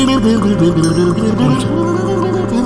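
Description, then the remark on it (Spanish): Lips blowing and bubbling into a glass of water make a steady, loud, warbling gurgle that runs the whole time, shifting in pitch almost like a played melody. “Con, sus labios y con agua. Una persona que dice un vaso con agua es un instrumento de música, ¿ok?”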